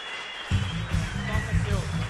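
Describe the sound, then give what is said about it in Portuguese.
An audience claps steadily, a dense wash of applause welcoming the first performer onto the stage, joined halfway through by a thumping low beat that keeps pulsing under the clapping. “Podem receber com a grande salva de palmas o primeiro deles.”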